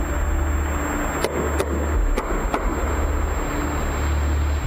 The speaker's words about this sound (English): This is the sound that was heard. Sounds like it could be somebody knocking. The symmetry between those knockings is very unusual.